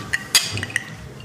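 Glasses of bourbon clink together in a toast at breakfast, a few quick, bright chimes, one louder knock among them, with no talking and quiet between the taps.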